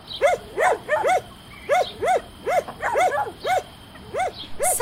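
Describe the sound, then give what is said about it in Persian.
A dog that is approaching barks over and over in quick, uneven bursts, often in pairs and triplets, fairly loud, with no voices. “گوگل خان گفت سگه سگ داره میاد”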